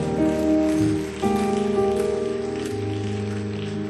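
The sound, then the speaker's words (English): A crowd claps steadily in a dense, rain-like patter, blended with sustained keyboard chords that shift partway through. The clapping stays loud and continuous throughout, with no voices. “if you are clapping hands, clap it well.”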